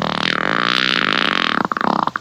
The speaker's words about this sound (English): You're listening to Outlaw Radio, where we're proper gentlemen because we always ask. Do you mind if I fart?